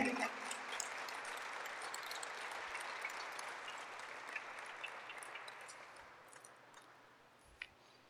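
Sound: audience applauding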